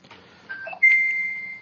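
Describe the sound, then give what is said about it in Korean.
A short electronic phone ringtone as a call comes in: a brief beep, then a higher, longer steady tone that holds for about a second. Fairly clear against a quiet background, with no talking. “아, 오늘은 뭐 벨소리도 들리고 아주 조용한 게.”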